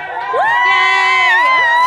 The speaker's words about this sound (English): Woo! Yay! Everyone's everyone's cheering